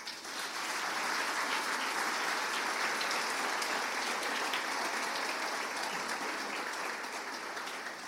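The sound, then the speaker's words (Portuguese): Sustained audience applause given in the name of Jesus, a dense, steady wash of many hands clapping at an even level for about eight seconds, tapering slightly at the end, with no one speaking over it. “Você pode aplaudir em nome de Jesus?”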